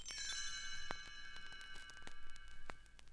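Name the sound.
tinkling little bells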